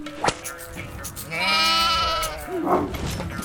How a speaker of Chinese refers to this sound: 是谁家的羊，竟跑这里来了？